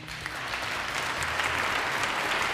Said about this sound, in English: Give him a round of applause, people. Oh, they're not giving a round of applause? All right, no problem.